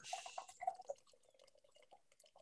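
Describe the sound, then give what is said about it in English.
Liquid is poured into a glass, starting with a splashy hiss and turning into a run of quick glugging, bubbly drips that trail off toward the end. No one speaks. “shall we pour it?”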